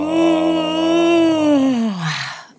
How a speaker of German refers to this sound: Okay, also erstmal gähnen. Ah.